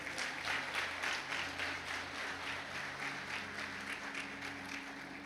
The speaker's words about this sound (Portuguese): Quem está recebendo, dá um glória a Deus e aplaude Jesus aí bem forte.